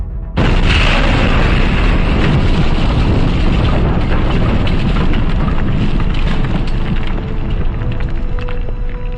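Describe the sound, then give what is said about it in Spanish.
A sudden, loud explosion, Nitro's blast sweeping away an elementary school, bursts in and keeps roaring as a dense, rumbling wash of noise with crackling debris, hardly fading for several seconds. No one speaks. “La explosión de Nitro barrió con la escuela primaria y con todos los niños que se encontraban en ella esa mañana.”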